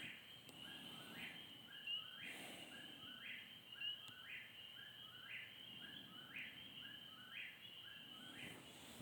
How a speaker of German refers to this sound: die Vögel sind ganz schön laut.